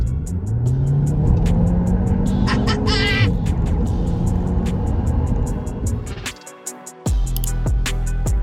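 A loud Cupra Leon 300 car engine revs hard, its pitch climbing and falling with rapid ticking crackles over the roar. It briefly drops off near the end, then surges back. No one speaks.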